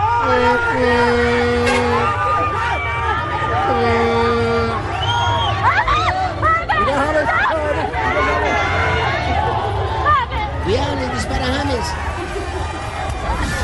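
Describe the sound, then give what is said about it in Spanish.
A loud, dense crowd of Colombia football fans cheers, whoops and shouts continuously around the departing Colombia team bus in a heavy downpour, running after it, with sustained horn-like tones sounding twice near the start over the steady roar of many voices. “es el ambiente a esta hora en la concentración de Colombia”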